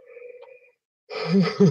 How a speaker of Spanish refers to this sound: yo hablo de bostezo y me pongo a bostezar. Si hay alguien que se le pega los bostezos rápido soy yo.